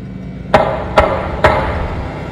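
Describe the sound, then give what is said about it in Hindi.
Three firm knocks on a house door in the village of Rawla Narlai, evenly spaced about half a second apart, fairly loud with a hollow wooden thud, over a quiet background hum. “हमारे दस्तक देते ही अंदर से एक लड़की की आवाज़ आई”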